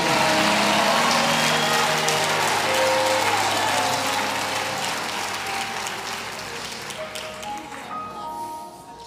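An audience bursts into steady applause, dense and loud at first, then gradually thinning and fading toward the end, with a few faint tonal notes emerging beneath the clapping.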